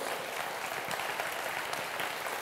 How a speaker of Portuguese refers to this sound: Dá um glória a Deus, aplauda Ele, você que está em casa, irmão.